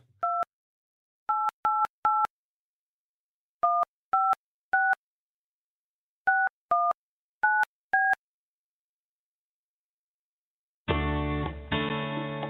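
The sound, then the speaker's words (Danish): About eleven short, clear keypad beeps as a phone number is dialed in uneven bursts to reach a tip line, followed after a pause by the start of a dense, louder sound. “Husker du at trykke landekode først? For... Ring igen.”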